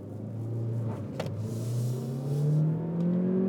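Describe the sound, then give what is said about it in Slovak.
The supercharged engine of a new car pulls hard under acceleration, revving up to 6,500 rpm, its droning pitch climbing steadily over a few seconds. The sound is loud, with a low rumble underneath and no talking. “Do 6,5 tisíca to točí ešte aj s kompresorom.”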